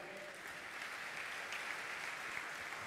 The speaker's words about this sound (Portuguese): Aplauda o Senhor que é bom.